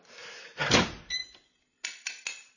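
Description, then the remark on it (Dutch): A door leading into the rear part of a house is pulled open with a broad rattling sweep and a brief squeak, then shut again with three quick, sharp knocks and clicks of the latch. No one speaks. “En dan komt u door deze deur in het achterhuis met de trap naar boven en de deuren naar de bibliotheek en de tuinkamer.”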